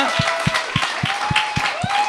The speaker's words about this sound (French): J'aimerais ça euh, qu'on donne une bonne main d'applaudissement tout de suite à Martin Perizzolo, qui va monter sur scène avec moi.